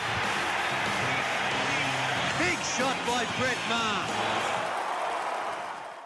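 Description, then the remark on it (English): A large basketball crowd roars and cheers loudly and steadily while a commentator's excited voice calls out over the din, the noise easing slightly at the very end. “they must have bigger crowds at the basketball than the footy. That that, that intro sounds like there's more people there.”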